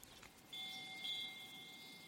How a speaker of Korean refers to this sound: 심지어 어떻게 했는지 바람이 불었고 새소리며 간간히 풍경 소리까지 울려 퍼졌다.